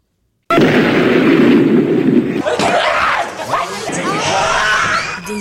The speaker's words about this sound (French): Tout à coup, la porte du laboratoire explosa.